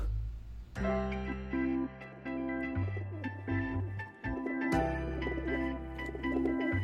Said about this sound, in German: Was ist das denn für ein Vogel?